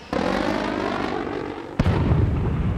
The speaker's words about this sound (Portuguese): zumbido fraco no céu. É um som diferente, mas que ele vem ouvindo cada vez mais. É o som de um desses novos aviões a jato sobrevoando. Ele olha para cima para ver a aeronave, mas só vê nuvens cinzas.